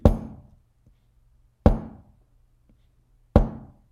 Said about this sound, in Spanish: y de repente, tipo 2, 3 de la mañana, empezamos a escuchar un golpeteo de...